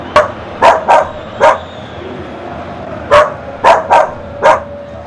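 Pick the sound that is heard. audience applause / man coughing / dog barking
dog barking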